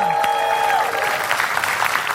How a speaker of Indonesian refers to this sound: Kita kasih tepuk tangan untuk penonton di rumah.